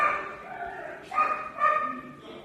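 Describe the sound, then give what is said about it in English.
About three dogs bark and yip indoors in a quick, overlapping burst, with a few sharp, high-pitched barks rising over a continuous, excited chorus, and no one speaking. “There are like three dogs in here.”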